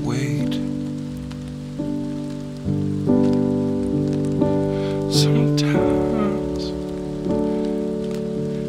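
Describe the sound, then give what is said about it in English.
Steady rain hisses in the background beneath sustained, slowly shifting musical chords, with a voice speaking briefly over the mix. “you gotta turn off the TV to hear the rain.”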